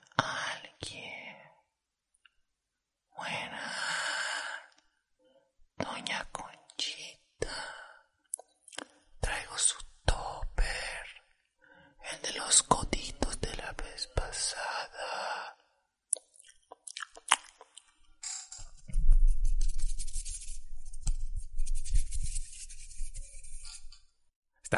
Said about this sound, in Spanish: Tengo amigos que solo escuchando eso se pueden dormir, güey. O sea, no pueden dormirse a menos que pongan su ASMR y pues se duermen.